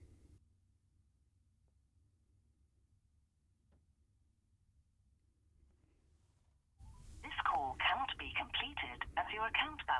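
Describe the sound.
A smartphone, made to by a script, places an outgoing call from a top-up SIM card without enough credit. After several seconds of faint low hum, loud, tinny call audio bursts from the phone's small speaker, choppy and voice-like, continuing to the end.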